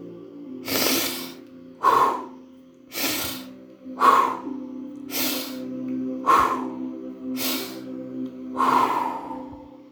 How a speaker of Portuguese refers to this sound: vamos fazer uma sequência de quatro respirações bem barulhentas e rápidas e uma respiração alongada.